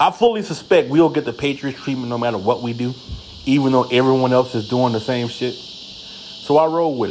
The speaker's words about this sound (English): If y'all hear the grasshoppers and crickets in the background, you're live from my garage.